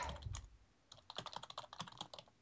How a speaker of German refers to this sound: da tippt er wütend. Ich, ja, ich muss gerade eine E-Mail beantworten, damit ich es nicht vergesse, aber rennt mal ein bisschen weiter noch.